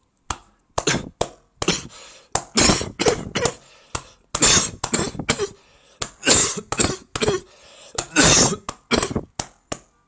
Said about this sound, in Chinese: 来，跟我做一个动作，用左手空心掌拍打你的右胸。乳头的上部，大约在肩窝向下一点，可以一边拍打一边主动的咳嗽。